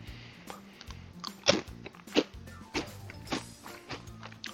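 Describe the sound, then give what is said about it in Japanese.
Crisp crunching of Calbee Plus 'Mugen Potechi' potato chips being chewed, with sharp irregular bites over a steady munching texture and no talking. “何それ、咀嚼音しか聞こえないよ”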